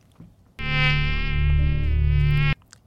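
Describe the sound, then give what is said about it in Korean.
A steady, high-pitched mosquito whine drones loudly for about two seconds with a dense stack of buzzing overtones, then cuts off abruptly. No voices are heard. “목이 날아가는 소리예요.”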